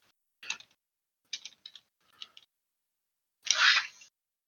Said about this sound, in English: All right, I'm gonna roll. Uh, I'm just gonna throw a random number of dice mm-hmm. here.